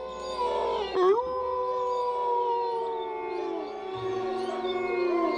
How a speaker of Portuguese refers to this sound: Todos pensaram o mesmo: são lobos.